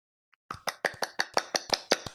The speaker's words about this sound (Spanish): Bravo, eso fue aplaudir.